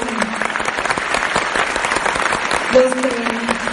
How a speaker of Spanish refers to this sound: Yo creo que un aplauso primero para ellos porque son los líderes